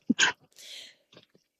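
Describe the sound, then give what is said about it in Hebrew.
A single sharp sneeze bursts out loudly, followed by a longer breathy exhale and a couple of faint sniffs. “לבריאות.”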